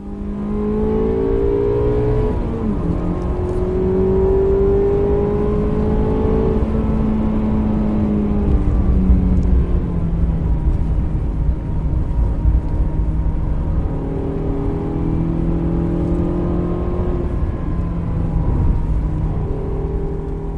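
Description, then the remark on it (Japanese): A car engine's intake sound in its normal state, without an induction sound enhancer, runs steadily, its low harmonic tones rising and falling as the revs change, loud and continuous with no voices. “これちょっと音を聞いてほしいんだけどえー、まずはねインダクションサウンドエンハンサーっていうんだけど、はい、それがないノーマルの状態、はい、これを聞いてください。”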